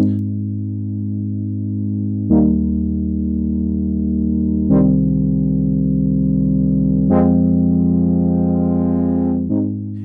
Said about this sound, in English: So the next sample is the pad stab, which isn't really a stab. It's more of a pad. It's a Retrologue again. Um, it has a fifth built into it in one of the oscillators.